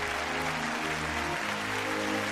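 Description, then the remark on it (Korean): Steady audience applause after a performance, a dense wash of many hands clapping at a constant level, with a faint low tonal hum underneath and no voices. “박수 쳐도 돼 싫어 안쳐이 공연 보고 나서는 박수 치는 게 예의야”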